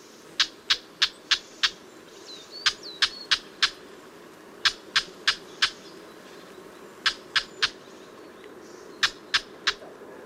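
A whinchat gives sharp, dry chacking calls in quick bursts of three to five, repeated several times with short pauses, over a low outdoor background.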